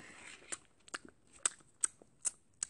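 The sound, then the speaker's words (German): Someone sucking on their own hair, producing a series of about six sharp, wet clicks and crackles at a fairly steady pace, quiet and intimate, with no talking. “Oh, okay, du versuchst an deinen Haaren zu luschen, was bei mir halt einfach zehnmal besser geht, wenn ich keinen Zopf trage.”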